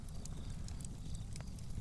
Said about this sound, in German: So, mein Lagerfeuer ist ausgegangen. Ich mache mal neues Holz rein. Ah, schön. Ich finde das beruhigend, ne?